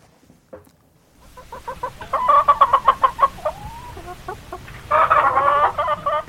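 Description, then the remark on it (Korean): A hen clucks in a quick run of short, repeated pulses, breaking off briefly before a second louder burst of clucking, heard alone with no talking. “꼬끼요 꼬꼬꼬꼬 이게 암탉이고 꼬끼요 하고 오는 건 수탉이고요.”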